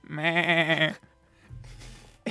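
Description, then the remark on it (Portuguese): A person's voice imitates a sheep-child film character, giving one loud, wavering bleat lasting about a second, followed by quieter low murmuring noise. “O que é estúpido porque tu tens uma personagem que é literalmente um, uma criança ovelha que a única coisa que faz é aparecer nas cenas com umas camisolas de malha muito engraçadas e fazer.”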